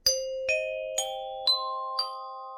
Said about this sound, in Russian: Подождите, у вибрафона пластинки гораздо больше, чем у колокольчиков. А если мы сыграем жестко палка для колокольчиков, звук будет все равно похож. Вот покажите. Ну, вот Один и тот же звук да? на вибрафоне жесткой палкой.